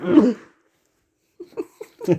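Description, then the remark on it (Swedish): A single loud, abrupt sneeze bursts out, followed by a short silence and then a few quiet murmured syllables of speech. “Prosit!”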